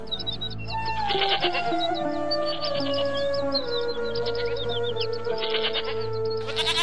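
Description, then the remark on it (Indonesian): Several goats being herded bleat in long, wavering, overlapping calls that fill the scene at moderate loudness, with faint bird chirps twittering in the background and no one talking. “sambil melakukan pekerjaannya mengembalakan kambing milik keluarga dan beberapa penduduk Mekah.”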